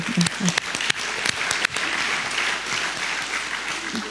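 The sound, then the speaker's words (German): A crowd breaks into steady applause, dense overlapping claps at a moderate loudness, with a few sharper individual claps standing out near the start; applause thanking a foundation for its work for democracy. “Da muss ich jetzt klatschen.”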